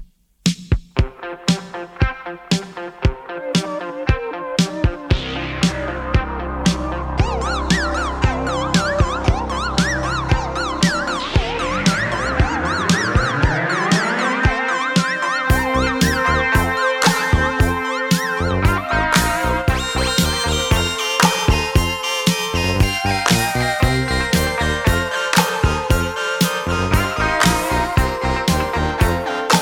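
Upbeat Cantopop song intro: a steady driving beat with bright synth chords and swooping, siren-like synth glides, loud and instrumental, with no singing yet.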